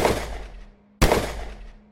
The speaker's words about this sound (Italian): Si sentono altri spari